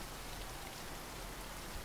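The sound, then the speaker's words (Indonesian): Steady rain falls in a dense, even hiss, with no breaks or gusts across the short stretch and no voices. “Tentu saja aku menyukai hujan.”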